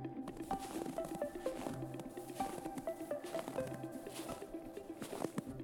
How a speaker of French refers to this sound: Ils discutent de tout et de rien lorsque tout à coup, des bruits de pas dans la neige les surprennent.